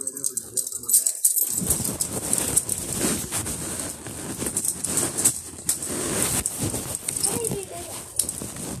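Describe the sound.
Keys with real locks attached jingle and clink almost continuously, a bright metallic rattle that swells and fades, with a muffled voice underneath.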